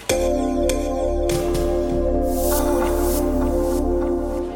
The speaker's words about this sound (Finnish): Ne ei tosin sano sitä ääniidentiteetiksi, ne sanoi sitä äänilogoksi. Sen on suunnitellut … ja se kuulostaa tältä.